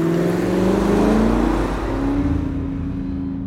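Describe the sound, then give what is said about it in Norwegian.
A car carrying two young people revs up and accelerates away in eastern Oslo, its pitch climbing steadily, loud at first, then its rough hiss thins out as it pulls away. “Så tar en bil med to ungdommer av like ved.”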